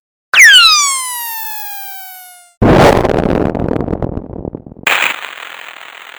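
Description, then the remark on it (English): A firework shrieks with a long, falling whistle, then bursts into a loud, sustained crackling explosion that gives way to sharp sizzling and popping. No one speaks. “The answer is firework.”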